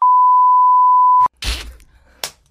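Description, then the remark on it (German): A loud, steady censor bleep holds one high pitch for just over a second, then cuts off abruptly, followed by a couple of short, breathy noise bursts. “da brauche ich ein mega langes Piep.”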